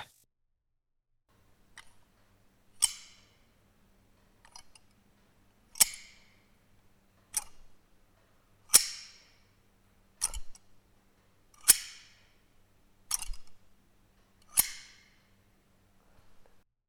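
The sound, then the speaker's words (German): Rib shears snip sharply over and over, about ten crisp metallic cuts spaced roughly a second and a half apart, fairly loud, with a faint low hum underneath and no voices. “Hier haben wir eine Rippenschere,”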